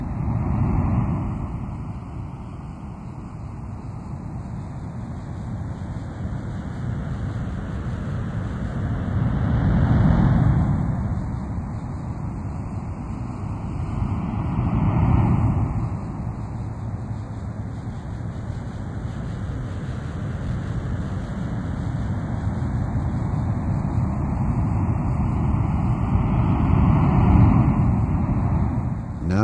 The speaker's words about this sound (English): as you listen to the sound of ocean surf, move your body into a more relaxed position.